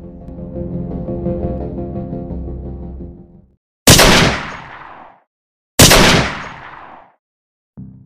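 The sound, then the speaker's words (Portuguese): Two loud gunshots ring out about two seconds apart, each a sharp blast with a long echoing tail, following a stretch of sustained tonal rumble; a third shot begins just as it ends. The shots are fired at a man standing in front of a carnival float during a festive celebration. “Aproveitou a referência. Dois tiros.”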